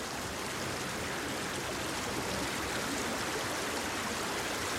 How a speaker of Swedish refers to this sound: Och i dagens avsnitt blir det forsen.